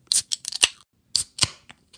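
Metallic clicks and crackles of a Coors Light beer can being cracked open, with short bursts of fizzing hiss in two quick clusters. No one speaks.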